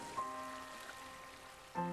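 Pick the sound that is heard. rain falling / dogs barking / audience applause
rain falling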